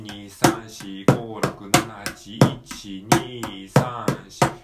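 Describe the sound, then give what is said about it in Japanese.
A mini cajon is tapped in a steady, even eight-beat rhythm, about a dozen crisp wooden hits. The hits are fairly loud, with a low, boomy ring under each one. “ミニカホンを叩いてみた”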